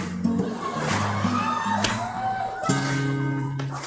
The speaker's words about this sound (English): That clapping's messing my head up, man. I appreciate it. But I was, was trying to think of the next line. I'm like, all I hear is clapping.